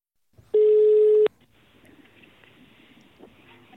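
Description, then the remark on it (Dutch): A loud, steady telephone tone sounds once for under a second during a phone call to the chairman of the World Federalist Movement Netherlands, then gives way to faint crackly line noise with no one speaking. “Ik bel nog wel een keer.”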